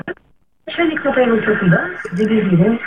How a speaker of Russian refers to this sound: Вы потише радиоприемничек сделайте, пожалуйста. Или отойдите от него подальше